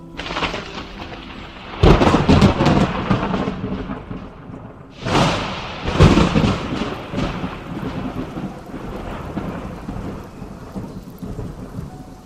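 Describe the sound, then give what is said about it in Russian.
Steady heavy rain hisses throughout, broken by two loud thunder cracks that rumble out, one early and another midway, with no voices present. “Дождь ручьем собрался у порога. Громко лес над крышей шелестит”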